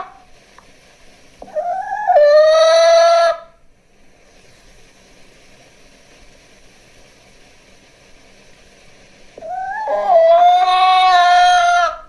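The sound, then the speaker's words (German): A hen gives two loud, drawn-out calls that rise in pitch, each lasting over a second, separated by several seconds of quiet background hiss. “Die haben es ganz genau genommen und wirklich nur ein Huhn, also eine Henne genommen.”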